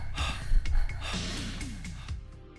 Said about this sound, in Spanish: Subimos después de unos breves segundos y por fin nos encontramos solos y en silencio. Se dejó de escuchar el sonido proveniente de la fiesta y fue sustituido por dos respiraciones agitadas.